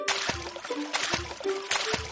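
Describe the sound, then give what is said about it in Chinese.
Feet stomping in a large puddle on a road, sending up three loud, splashy bursts of water at a steady rhythm, with wet sloshing and dripping filling the gaps between them. “皮皮又重重的踩了一下，水花溅起来了。”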